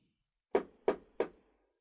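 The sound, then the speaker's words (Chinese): Three firm knocks on a door at 2:28 a.m., evenly spaced about a third of a second apart, each a sharp thud with a short decay, alone with no voices. “敲门声。”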